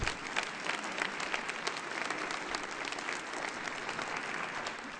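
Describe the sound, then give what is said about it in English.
A church crowd gives sustained applause celebrating Claire Mater's upcoming 100th birthday, a dense, steady patter of many hands clapping at an even level for several seconds with no pauses. “I'm guessing Claire is watching on TV, so let's give her one another round of applause there, yeah.”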